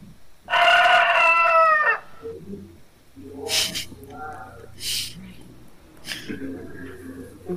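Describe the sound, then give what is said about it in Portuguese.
A loud rooster crow, part of a jingle, rings out once near the start, a single drawn-out cock-a-doodle-doo, followed by quieter murmuring voices and faint background sounds. “Então pera aí, tem que botar a vinheta aqui de novo.”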